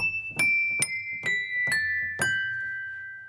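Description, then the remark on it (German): Old piano hammers, linked by ropes to the keys and pressed like piano playing, strike tuned wine glasses inside an open piano case five times in a gentle, uneven sequence. Each tap leaves a bright, sustained ringing tone that overlaps the next, fairly soft with no talking. “Schon klopfen die Hämmerchen an das Glas.”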